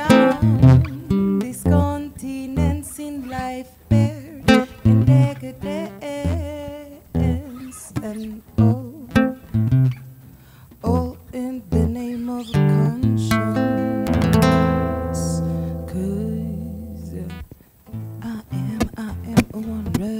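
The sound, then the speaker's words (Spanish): A singer-songwriter track plays loud: a sung melody over instrumental backing, with phrases that pause and resume, then a long sustained chord and held note near the end. “Esta es una canción escrita hace unos cuatro, cuatro años en la ciudad de New Jersey con la cantautora”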